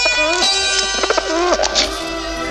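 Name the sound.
pigeon cooing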